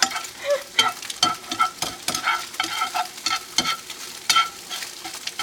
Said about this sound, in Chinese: 好，我们稍微让它拌炒一下。如果你会甩锅的话呢？哎，这时候就是一个炫技的时间，呼呼，可惜你们看不到。